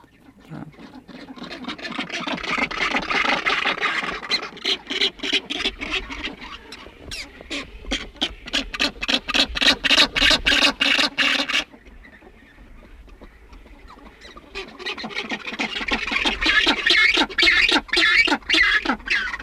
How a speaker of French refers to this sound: Donc à nouveau des sons étranges. Ce sont les oiseaux, les gorfous sauteurs, quand on essaye d'isoler un chant de manchot et d'enregistrer plusieurs fois le même manchot et que d'un seul coup, il y a un chœur de deux, trois, quatre manchots